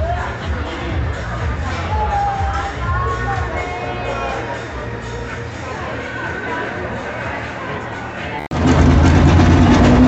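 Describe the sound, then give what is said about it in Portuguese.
A Stock Car race car engine fires up abruptly near the end, a loud, deep roar cutting through a busy pit box full of chattering voices and background engine rumble. “ligou o motor do Stock Car.”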